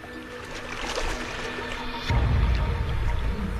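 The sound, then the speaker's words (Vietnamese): A herd of hippos calling near water at a hippo feast: steady splashing and churning throughout, then deep, loud rumbling grunts surge in about halfway and carry on to the end. “Trên thực tế, đó chính là nguồn gốc của những tiếng ồn, một bữa tiệc Hà Mã.”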